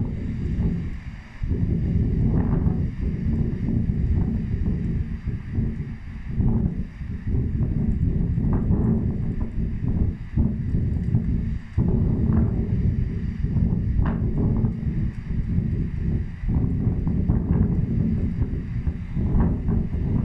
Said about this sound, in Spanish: este largometraje titulado La Gruta del Viento, relacionado con Italia, diré como cito así como una geografía, y escuchamos también primero el sonido